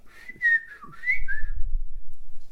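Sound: person whistling a tune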